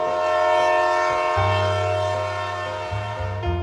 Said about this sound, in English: Through the barren trees surrounding the town center, the coal trains labored along the tracks, sounding their mournful whistle.